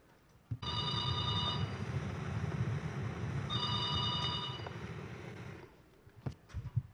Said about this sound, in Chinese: 突然从乡下来了一通电话，是学子的父亲所打来的。